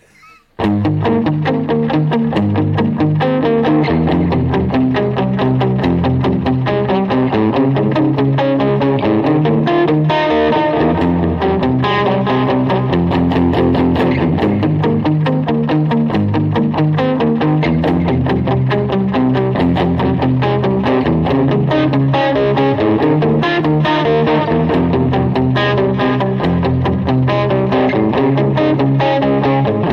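A distorted electric guitar plays loudly and without pause, a dense, buzzing stream of fast notes and chords lasting the whole stretch, with no voices.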